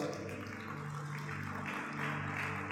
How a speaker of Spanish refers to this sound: Amén. Dale un aplauso a Papá Dios.